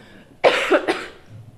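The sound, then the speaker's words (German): After a sip of cola, a sharp cough bursts out, followed by a second and third quick cough in a short rough cluster, then quiet. No talking. “Also ich, ich kenne es vor allem, wenn man nicht husten will und denkt, es kribbelt im Hals, es kribbelt, es kribbelt”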